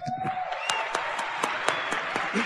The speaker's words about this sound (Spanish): que démosles un aplauso a ellos.